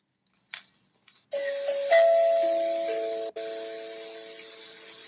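Radio station identification chimes: a short sequence of three or four bell-like tones at different pitches, each ringing on and overlapping into a sustained chord over faint hiss, after a couple of soft clicks.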